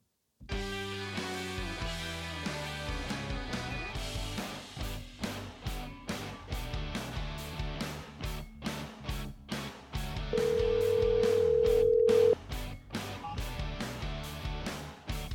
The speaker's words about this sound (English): So, you're going to hear some bumper music while I get Tommy on the line.